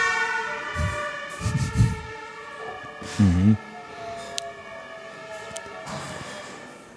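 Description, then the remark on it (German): An emergency vehicle siren of rescue services passing outside in the Viertel district of Bremen, Germany, wails steadily throughout, a sustained high tonal whine with a slight wavering pitch, while a voice briefly murmurs and a few low thumps sound underneath. “Die männlichen Rettungskräfte auf die Stelle.”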